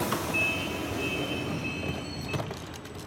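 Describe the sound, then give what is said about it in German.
A U-Bahn subway train rumbles steadily through a station on a commute to the office, with thin high metallic whines of wheels or motors over the low roar and a brief clunk near the end. No one speaks. “Mit der U-Bahn ins Büro fahren”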